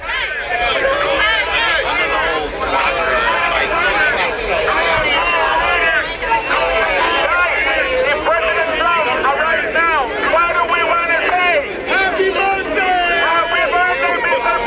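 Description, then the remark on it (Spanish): A crowd of hundreds of Donald Trump supporter protesters outside a court in Miami, carrying campaign and United States flags, fills the air with dense, overlapping voices, a loud and continuous hubbub of many people talking and calling out at once, steady throughout. “Bueno, pues ahí está, son cientos de personas, usted los escucha, todos ellos traen camisas alusivas, banderas de, campaña de Donald Trump, haz América Grande otra vez, dicen algunas playeras, banderas de los Estados Unidos, van vestidos de azul”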